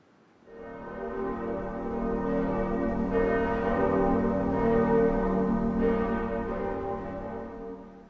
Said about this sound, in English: Church bells can remind us of the passing of time or perhaps our own mortality.